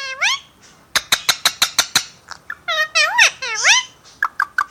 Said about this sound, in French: Les muscles de la syrinx du perroquet sont eux si développés qu'il peut reproduire la parole humaine et imiter aussi d'autres sons de son environnement.